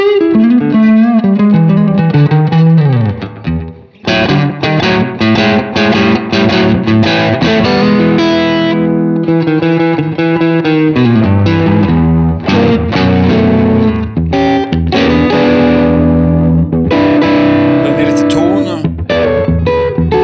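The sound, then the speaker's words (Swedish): Overdriven electric guitar played loud through an overdrive or boost pedal, thick distorted chords and sustained notes ringing out, with a brief gap a few seconds in before the riffing resumes. “lite, om du hade liksom dragit ner overdriven eller boosten lite grann.”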